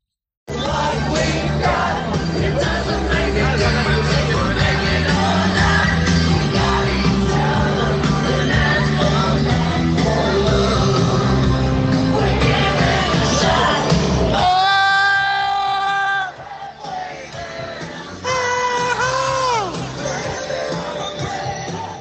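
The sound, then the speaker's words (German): A voice message in a parents' WhatsApp group chat, sent overnight: loud, dense group voices sing and shout together over a noisy party backdrop, then a single voice briefly wails in long sliding tones before the crowd noise returns. “In der WhatsApp-Gruppe.”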